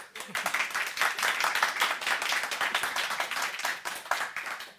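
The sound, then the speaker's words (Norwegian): A live audience of guests at a German literature festival in the Kvernelandsalen at Litteraturhuset in Oslo applauds steadily, a dense wash of many hands clapping at once that holds its level for several seconds, with no voices rising above it. “Og som dere hører, har vi en haug med gjester her uh, på Kvernelandsalen på Litteraturhuset i Oslo.”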